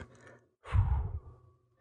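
A single long, breathy yawn fades slowly over about a second after a brief pause, close and fairly loud with a low voiced groan underneath, with no speech.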